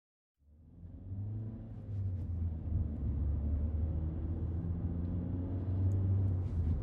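A steady, heavy engine rumble from inside a car speeding up to overtake a slow-moving car on the Brooklyn-Queens Expressway, building in level over the first couple of seconds and then holding a continuous low drone with road noise.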